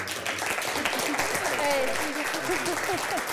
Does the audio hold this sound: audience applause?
yes